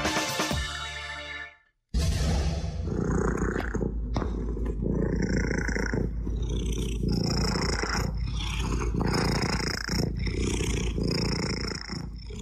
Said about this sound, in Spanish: Les traemos un sonido muy relajante antes de irnos de nuestra historia sonora de hoy. Esperemos que les gusten los gatos porque ellos son una parte importantísima de la historia de hoy. Por eso les dejamos el sonido de un ronroneo